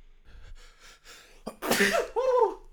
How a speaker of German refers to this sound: Ich muss gleich niesen.